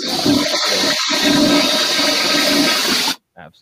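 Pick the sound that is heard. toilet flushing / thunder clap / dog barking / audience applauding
toilet flushing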